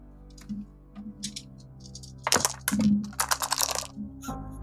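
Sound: dice being rolled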